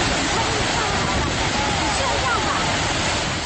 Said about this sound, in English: And speaking of sound, so here here's what Niagara Falls sounds like.